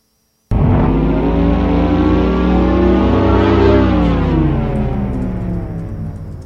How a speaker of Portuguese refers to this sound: rodando novamente o barulhinho do carro elétrico